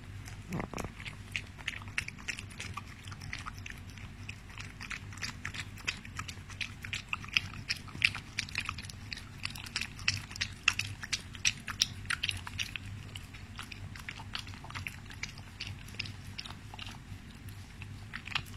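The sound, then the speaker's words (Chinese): A household puppy drinking milk, recorded at 9:30 in the evening on May 25, 2019: a steady stream of quick, wet lapping and smacking clicks that runs without pause, with a low, constant hum underneath and no voices. “现在是二零一九年五月二十五日晚上九点半，我想给大家听一下我家的小狗喝奶的声音。”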